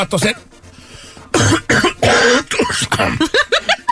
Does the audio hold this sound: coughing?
yes